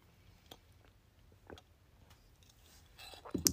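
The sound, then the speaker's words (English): Someone sips an iced coffee: a few faint clicks and light ticks break the quiet, then a short, louder slurping gulp lands right at the end. No one speaks. “Let me take a sip of my iced coffee.”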